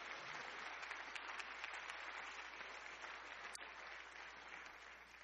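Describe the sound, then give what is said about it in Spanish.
A crowd at a church sermon applauds the Lord steadily, many hands clapping together in a dense, continuous roar of claps that holds strong throughout and eases slightly at the end, with no voices. “Dele un aplauso al Señor en esta hora.”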